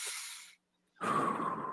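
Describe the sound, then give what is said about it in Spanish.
A deliberate, relaxed breath: a soft airy inhale, a brief pause, then a longer, fuller exhale through the nose with a slight whistling tone. No talking. “Porque si tú estás pensando en cómo estamos respirando, pues tú puedes respirar como tú quieres, o sea, ¿ok?”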